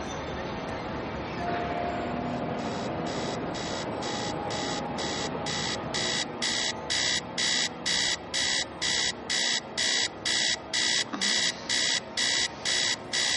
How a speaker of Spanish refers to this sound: Juliet vuelve a despertarse tarde cuando le suena insistentemente el despertador